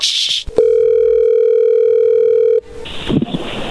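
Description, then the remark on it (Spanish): A steady telephone dial tone hums for about two seconds as a call is being placed, a loud, constant pitched tone with harmonics, preceded by a click and followed by line noise and rustling. “Ahí le estamos marcando.”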